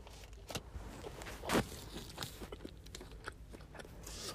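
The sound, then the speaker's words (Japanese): Someone bites into a Shizugawa thick-grilled sasa kamaboko fish cake and chews, with one louder crunchy bite followed by a series of soft, irregular chewing and mouth sounds. No one speaks. “えー、ちょっと開けて食べてみますね。”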